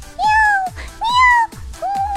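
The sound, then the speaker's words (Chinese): A person mimics a cat with three drawn-out, high-pitched meows in a row, each rising then gliding down, spaced with short pauses and fairly loud. “就是如果我看到猫了，我第一反应就是喵”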